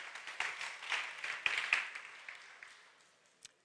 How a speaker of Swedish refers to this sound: Fantastisk lovsång. Kan vi inte ge lovsångsteamet en applåd? Tack så mycket gänget.